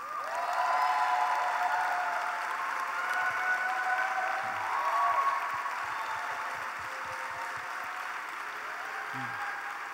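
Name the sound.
applause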